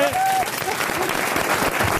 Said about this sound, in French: Vous pouvez applaudir Marc-Antoine vrai